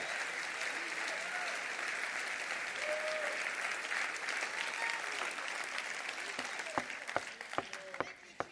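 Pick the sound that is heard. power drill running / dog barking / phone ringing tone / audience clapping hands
audience clapping hands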